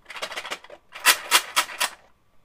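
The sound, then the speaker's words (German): Euro coins rattle inside a cash box called the Corona-Kasse, first a softer jingle, then four louder rhythmic shakes of bright metallic clinking, heard alone. “Das hier ist der Ton der Corona-Kasse.”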